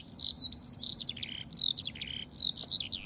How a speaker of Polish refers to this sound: Właśnie słyszymy skowronka. To jest drugi znak wiosny. W tej chwili też możemy skowronki usłyszeć e, praktycznie wszędzie.